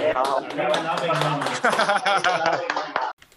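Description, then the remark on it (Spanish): A burst of hand clapping lasting about three seconds, mixed with loud overlapping voices and cheering, then cutting off abruptly into near silence. “Un aplauso.”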